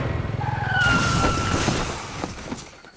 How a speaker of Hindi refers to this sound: अक्षय के पैर bike break पर अचानक पड़ गए अचानक ब्रेक दबने से बाइक का संतुलन गड़बड़ा गया